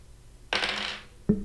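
Dice rolled for an occultism check in a tabletop role-playing game clatter across a hard tabletop in a bright half-second rattle, then a single sharp knock as one comes to rest. Fairly loud, with no voices.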